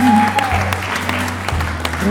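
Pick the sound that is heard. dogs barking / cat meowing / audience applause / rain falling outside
audience applause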